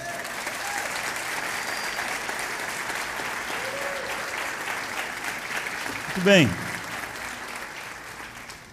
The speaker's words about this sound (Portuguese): Você pode celebrar o Senhor com as suas palmas, crendo nisso?